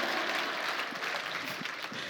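An audience claps in a steady, dense wash of applause that holds an even loudness throughout, with no voices over it.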